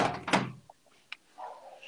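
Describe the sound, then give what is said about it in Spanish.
A window slides shut with one solid thump, followed by a couple of small faint clicks and a soft rattle. No one speaks. “Dame un voy a cerrar la, ventana”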